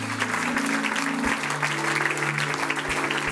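A church audience applauding: dense, steady clapping from many hands that holds at an even level throughout, with a sustained low musical drone underneath.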